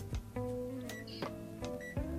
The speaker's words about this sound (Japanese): ちょっとエアコンつけていい